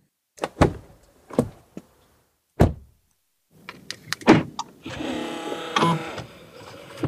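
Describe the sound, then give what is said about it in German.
Several sharp clicks and thunks from a car, then a steady electric whirring hum starts up and runs to the end as the car's petrol pump primes, with no talking. “Das könnte eben sein von eben Benzinpumpe, dass das am Anfang hat.”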